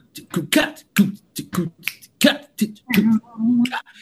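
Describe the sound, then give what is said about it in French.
A quick, steady run of finger snaps mixed with mouth-made percussive clicks and a short hummed note, a voice imitating the bouncy country music beat played on the radio. “C'est mon montée de la Il y a tout le temps la même beat.”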